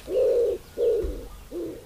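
A common wood pigeon coos in soft, low, hollow notes, three drawn-out phrases in a slow steady rhythm with brief pauses between, clear against a quiet background.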